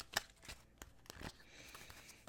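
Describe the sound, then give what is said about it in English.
Tarot cards being shuffled during a card reading: a string of soft, irregular papery snaps and slides, one sharper flick near the start, with no voices. “Spirit's still having me shuffle. All right. Last shuffle.”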